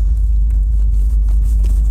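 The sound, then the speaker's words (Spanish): The suspension of an 18-year-old car jolting over a rough dirt track in the countryside, heard from inside as a constant deep rumble with faint, irregular knocks and rattles, loud, with no talking. “No sé si se escucha la pobre suspensión de mi coche.”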